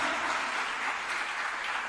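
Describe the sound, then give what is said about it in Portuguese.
Sustained applause as worshippers are urged to clap louder for Him, a dense, steady wash of many hands clapping at once with no pauses, bright and hissy across the whole span and no voices standing out. “Aplauda mais forte a Ele, porque nesses dias vai ter salvação e libertação na sua casa.”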